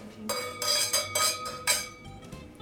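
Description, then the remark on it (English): Glasses clink together in a toast, several bright chimes in quick succession with lingering ringing tones, moderately loud, with no talking. “Thank so, so um, cheers. Thank chin chin. That's the chin.”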